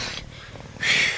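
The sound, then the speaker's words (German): An injured lion purrs like a house cat as it calms down, a low rhythmic rumble between breathy, rasping exhalations at the start and end, with no one talking. “Er schnurrt wie eine Katze.”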